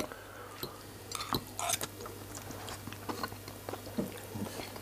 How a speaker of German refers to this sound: Es ist auch schön, wenn ich den Gast höre schmatzen. Das ist einfach etwas Wunderbares.